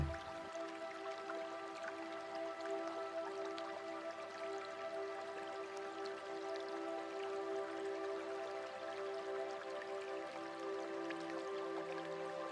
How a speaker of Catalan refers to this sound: la proximitat, el tacte i el so de l'aigua.